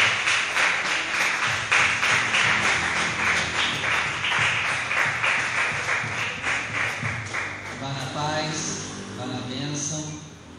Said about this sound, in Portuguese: E viva Jesus! Vamos aplaudir o nome dele.